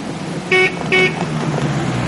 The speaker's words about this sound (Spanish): Guido llega con el coche.